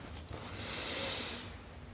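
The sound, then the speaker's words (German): A single slow, deep inhale taken during a guided meditation, a soft airy rush of breath that swells and fades over about a second, fairly quiet, with no talking. “Wir nehmen gemeinsam einen tiefen Atemzug und atmen ein.”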